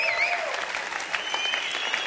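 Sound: applause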